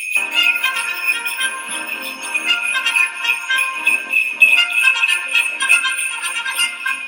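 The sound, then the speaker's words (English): Bells shaken with both hands jingle continuously for several seconds, a bright, busy shimmer of shaking with steady loudness and small irregular bursts. The sound is fairly loud, with no voices. “Can you can you with both hands you know, grab the bells with both hands and give them a good old jingle jangle.”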